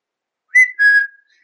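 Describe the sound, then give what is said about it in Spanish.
A person whistles a short two-note call, a quick bright note followed by a longer sustained one that trails off, loud and clear with no other sounds around it. “Así que ya sabes, en vez de mandar un mensaje, puedes silbar en la ventana. Me imagino a los vecinos, yo silbando en la ventana y los vecinos puteando a tres motores.”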